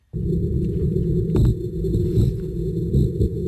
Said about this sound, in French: Ça, c'est le chant des morues amoureuses.